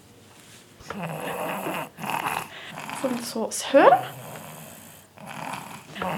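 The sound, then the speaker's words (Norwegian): A newborn boy makes loud, rough snoring grunts in short bursts, with a soft adult voice speaking briefly in between. “Syns litt synd på ham, for han høres ut som han kan bli en snorker.”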